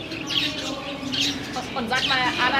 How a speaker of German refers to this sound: weil ehrlich gesagt diese Kanarienvögel sehen, sehen nicht so aus, wenn sie krank wären. Ja, die da unten sehen aber schon sehr, sehr, sehr, sehr leidend aus.